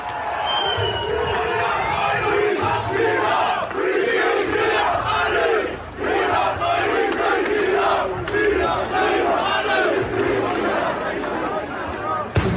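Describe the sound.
A large protest crowd shouts and yells continuously, many voices overlapping in a dense, agitated roar with bursts of louder cries, sustained at a steady high level throughout, as police come running around the corner and the protesters fall back.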